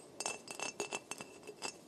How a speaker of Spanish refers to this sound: El sonido era el de un dedo golpeando el vidrio. Otra vez.